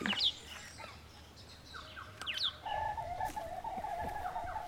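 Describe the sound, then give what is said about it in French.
Moorhen calls ring out outdoors by a lake: a few sharp, rising chirps at first, then a steady run of quick repeated notes. Moderately loud, with no talking. “C'est des poules d'eau, ça, non Ça ressemble poules d'eau le bruit de poule”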